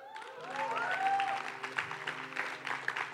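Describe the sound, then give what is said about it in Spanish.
An audience breaks into sustained applause, a dense patter of many hands clapping steadily for about three seconds, with a few rising whistles and whoops near the start. “¿Por qué le damos un aplauso”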